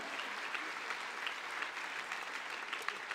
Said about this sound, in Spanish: Dale más fuerte ese aplauso al Rey, por favor.